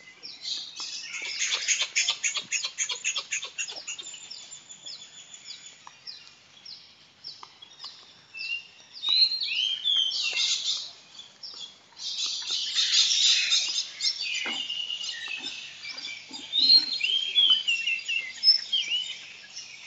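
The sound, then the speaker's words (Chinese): A lively chorus of many birds singing at once in the early morning near where the speakers are staying, with dense, overlapping high-pitched chirps, rapid trills and sharp tweets that swell and fade in bursts throughout, with no voices. “我们附近住了很多的鸟，它们的叫声特别的好听。”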